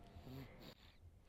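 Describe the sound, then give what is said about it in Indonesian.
Soft breathing of a sleeping baby being carried in a baby carrier, a brief wheezy, snuffly inhale and exhale, quiet, with no talking. “jadi kalau kalian wondering ini ada suara apa ya kayak ada suara nafas orang itu adalah suara nafasnya”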